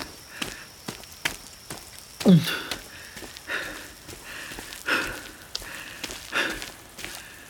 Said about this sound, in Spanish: Y estoy a punto de volverme cuando de repente mi respiración cambia.